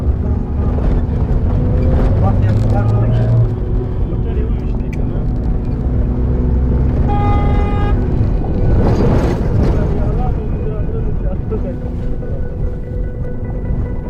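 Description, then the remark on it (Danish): A steady, loud low-pitched engine drone of a dented white station wagon humming while driving fills the whole recording, with faint tonal whines and a brief swell of noise midway. “Og lyden af bilens brummende motor får pulsen til at sænke sig en smule.”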